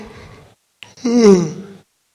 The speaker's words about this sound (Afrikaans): Ja, skies. Wie gaap nou? Wie gaap?